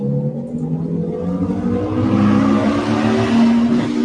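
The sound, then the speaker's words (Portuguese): Loud engines of two motorcycles roar past together, their droning pitch climbing and swelling as they draw near, with no one speaking. “Olha a moto, duas motos ao mesmo tempo.”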